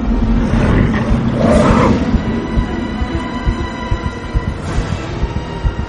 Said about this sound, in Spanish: Con un rugido el animal saltó para atacar a Arnie Westrum, que volteó el pico, solo una vez.